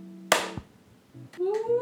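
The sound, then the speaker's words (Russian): One sharp, loud hand clap cracks out and decays quickly over a low steady hum, followed by brief voices and a rising vocal tone. “Это ну, одного хлопка достаточно.”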